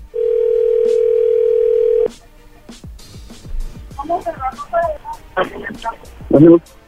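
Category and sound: signal or alarm, telephone dial tone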